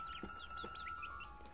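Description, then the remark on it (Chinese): A flock of chickens and chicks on a farm: rapid high-pitched peeping chirps run throughout, with a couple of lower clucks, over a steady faint hum and background noise. “公鸡叔叔和母鸡阿姨带着一大群小鸡住在不远处的农场里。”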